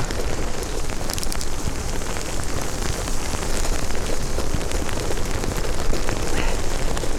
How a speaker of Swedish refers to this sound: Aj, aj, aj, det gör ont. Ja, det gör rätt ont. Alltså. På kinderna när det haglar så. Ja. Vi får se om det räcker nu. Ja, det var inte så jätteskönt det där haglet.